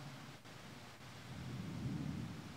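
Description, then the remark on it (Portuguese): A deep, rolling rumble of thunder during a storm swells and peaks before easing, over a steady hiss of falling rain, with lightning flashing at the windows; no voices. “Embora a gente escutou trovões e até viu alguns relâmpagos brilhando nas janelas”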